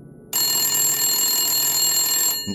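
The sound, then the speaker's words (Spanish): A telephone rings with a single bright, sustained trill lasting about two seconds, fairly loud, then cuts off abruptly; no one speaks. “En aquel momento sonó el teléfono.”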